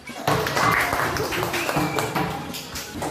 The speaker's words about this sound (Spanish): Muy bien, un aplauso.